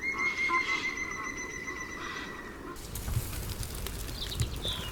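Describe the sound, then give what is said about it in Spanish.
A woodpecker in a snow-covered forest after a storm gives a rapid, whinnying series of ringing notes for a few seconds, then falls silent, leaving a low, steady outdoor rumble with faint scattered chirps. “Relincha un pájaro carpintero.”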